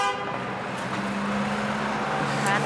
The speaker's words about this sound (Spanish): Y, uy, que nos atropellan. Pero que quería seguir yendo el coche, que me quería atropellar.